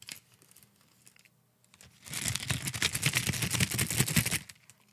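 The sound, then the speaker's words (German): Butterbeer-flavoured jelly beans rustle and rattle inside a crinkly bag, shaken in a dense, busy burst of about two seconds after a quiet start. No one speaks. “So klingen sie in der Tüte.”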